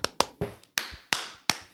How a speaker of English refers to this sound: Now, oh, that's him clapping. He's a madman, seriously.